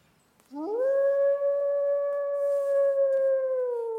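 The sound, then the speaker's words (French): A single wolf howls in one long, sustained note that rises quickly at the start and then holds steady with a slight droop, clear against near silence. “Après presque un siècle d'absence, le voilà revenu.”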